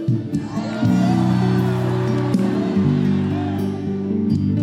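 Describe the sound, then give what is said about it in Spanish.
An audience shouts and cheers together in a loud, sustained roar that swells after the first second and holds steady, with whoops rising from the dense mass of voices. “entonces yo voy a hablar una frase y si es você pula, grita, faz algo.”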